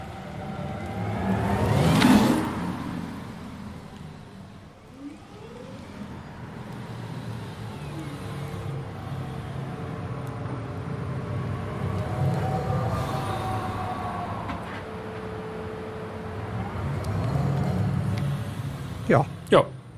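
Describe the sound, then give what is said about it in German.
An electric Cupra Born car drives and accelerates, a smooth rising electric whine layered with tire and road rumble, swelling and easing over the stretch, with a couple of sharp clicks near the end. “Richtig, und zwar den elektrischen Cupra den Cupra Born.”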